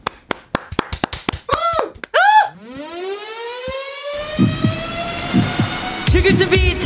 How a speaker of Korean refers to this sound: 노래 전주에 사이렌 소리가 짧게 나오는데요. 오늘 민방위 훈련 있어서 그 소리로 착각할 수 있는데 헷갈리지 마세요.